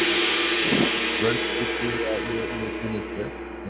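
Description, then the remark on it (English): A gong rings out, its deep metallic tone swelling and shimmering as it sustains for several seconds with a dense, droning resonance. “So let's give you the gong.”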